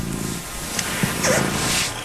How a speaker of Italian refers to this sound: Eh, il gatto, il gatto ti rilassa.